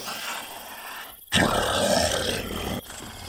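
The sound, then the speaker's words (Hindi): A sudden, loud, rough growl from a werewolf standing on its two legs bursts in after a brief hush and roars on for about a second and a half before cutting off. Low ambient noise runs before and after. “मेरे पीछे एक भेड़िया था और वो कोई ऐसा वैसा भेड़िया नहीं था बल्कि एक मानव भेड़िया था अरे तुझे कैसे पता चला कि वो भेड़िया मानव था क्योंकि वो भेड़िया अपने दोनों पैरों पर खड़ा होकर अपनी बड़ी और लाल आंखों से मुझे ही घूर रहा था”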